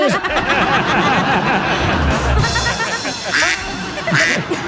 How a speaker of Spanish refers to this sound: Dice, pato, tráeme las pantuflas. Y el pato dice, cuá, cuá.